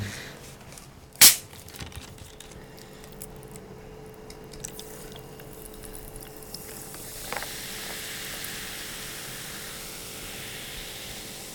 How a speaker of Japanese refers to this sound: このいつも炭酸入れる音上手に取ってくれますよね本当です、聞いててびっくりしたプロの仕事はね氷の音とかすごいいいですよね、